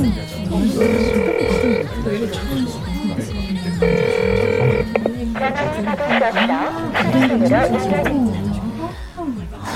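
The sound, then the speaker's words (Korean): A telephone rings twice in steady electronic bursts about three seconds apart, then goes quiet with no one picking up. The call is to someone who missed work without notice. Muffled voices and room noise carry on underneath. “말도 없이 결근을 했으면 전화는 받아야지.”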